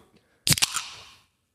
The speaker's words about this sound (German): ich finde, da passt auch so ein fresher äh, Can Crack rein. Achtung.